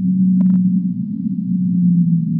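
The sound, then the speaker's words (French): A loud, steady low-pitched tone drones throughout, like a sped-up whale call, with a brief cluster of higher clicks near the start. No voices are present. “C'est-à-dire on multiplie par 5 ou par 7 la vitesse de défilement du son pour pouvoir l'entendre euh, à l'oreille humaine.”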